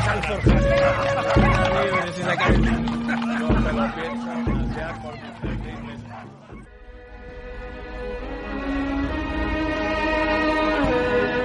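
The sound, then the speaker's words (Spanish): Dogs bark and yip repeatedly in an excited, uneven chorus for several seconds before the barking stops and sustained tonal music takes over. “Tendré a los perros, que voy a sacar el vino.”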